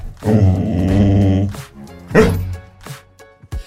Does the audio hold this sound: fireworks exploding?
no